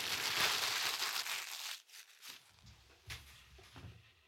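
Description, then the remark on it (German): A sheet of paper is crumpled, a dense crackling rustle for nearly two seconds, then a few sharper crinkles and rustles after a brief pause. No one speaks. “Meine Damen und Herren, das Blatt Papier ist wieder fällig.”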